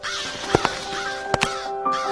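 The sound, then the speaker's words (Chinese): Crows circling overhead caw in short, harsh bursts, a quick pair, then another pair, then a single caw, over a steady background of soft sustained tones. No one speaks. “乌鸦。和学巫在他们的头上盘旋，嚎叫”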